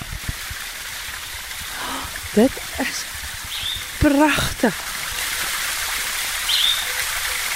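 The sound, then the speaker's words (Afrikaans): Water coming off a waterfall runs down in a steady, hissing rush that fills the whole scene. It flows constantly even without rain and is fed from a wet sports-field area. A person speaks briefly over it, and a faint bird chirp sounds a couple of times. “Nee nee nee, dis die water wat van die waterval af kom wat nou so loop. Jy kan hom hoor hoe hardloop hy hier af.”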